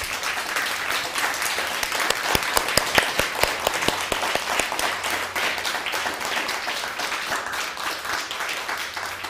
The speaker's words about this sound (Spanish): Bueno, ahora sí, de, vuelta un fuerte aplauso.